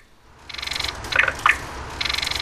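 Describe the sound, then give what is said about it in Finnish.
Nightingale song played in reverse as a sound beacon guiding people to the main door of the Iiris service and activity centre for the visually impaired, a building completed in 2003 in the Itis area: two rapid buzzing trills framing a pair of sharp, whistled chirps, repeating clearly over a low background hum with no voices. “Tältä kuulostaa satakielen laulu takaperin toistettuna.”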